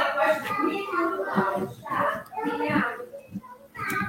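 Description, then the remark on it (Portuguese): A young girl's high-pitched voice shouts and calls out in repeated bursts over about four seconds at the back of a house, picked up by an unmuted microphone. The shouting is fairly loud, with no other clear talk. “Imagino que deve ser minha filha gritando no, no fundo aqui da casa.”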